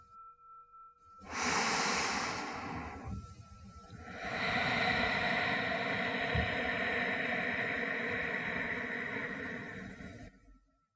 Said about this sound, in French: Concentrez-vous maintenant sur votre respiration uniquement. Inspirez profondément par le nez et expirez longuement.